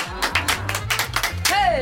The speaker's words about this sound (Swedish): Och här klappar vi med också.